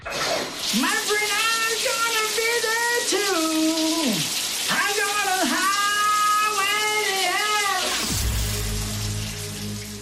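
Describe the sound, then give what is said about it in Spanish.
A shower runs with a steady hiss of falling water while a voice sings sustained, wavering notes over it in two long phrases, followed by a low knock near the end. “Solo tienes que decirme quién es este que canta bajo la ducha.”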